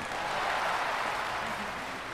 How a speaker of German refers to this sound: Und hier kommt er. Hier ist unser dritter Kandidat. Applaus